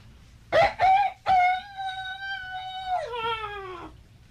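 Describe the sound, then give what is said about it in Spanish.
A man imitates a rooster crowing: a few short clipped notes, then a long sustained tonal cry that holds steady before dropping in pitch and trailing off. “Yo voy a cantar como gallo, jodido.”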